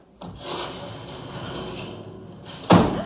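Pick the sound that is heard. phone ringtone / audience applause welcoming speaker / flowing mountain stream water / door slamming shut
door slamming shut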